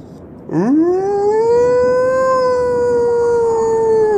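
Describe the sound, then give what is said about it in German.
A single long, loud wolf howl rises sharply at the start, then holds a steady, slightly wavering tone for several seconds without pause, clear with no voices. “und die anderen Wölfe stimmen sofort mit ein und ihr merkt, wie sie versuchen, von euch wegzukommen.”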